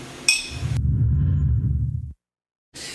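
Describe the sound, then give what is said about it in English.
A single bright clink of glasses in a toast rings out near the start, brief, then gives way to a low, steady rumbling swoosh before cutting to silence. “Cheers.”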